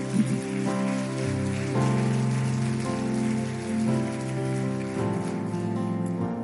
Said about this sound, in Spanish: Le damos un fuerte aplauso al Señor.